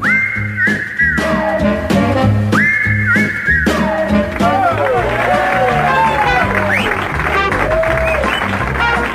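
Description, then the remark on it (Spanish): Loud, sustained audience applause for participant number one in a quiz game on the radio station El Puente FM, mixed with cheering voices and several sharp rising and falling whistles, the clapping steady throughout the whole stretch. “Muy bien, muchas gracias por los aplausos para el participante número uno.”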